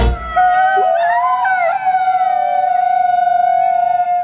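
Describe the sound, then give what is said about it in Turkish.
Wolves howl in long, mournful, sustained tones, a few voices briefly sliding and overlapping before settling into one steady held note, loud with no talking; a recording from the Wolf Conservation Center, based in New York. “Bu ürpertici ulumalar aslında kurtların dili.”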